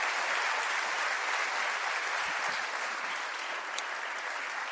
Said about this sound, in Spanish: Entonces quiero que lo reciban con un gran aplauso